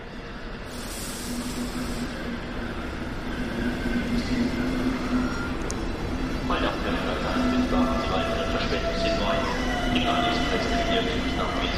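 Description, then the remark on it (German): Busy railway station ambience at Pasing station, with a train rumbling and screeching, a steady low drone with metallic squeals and clanks building in the second half, continuous throughout. “Das ist der Bahnhof Pasing.”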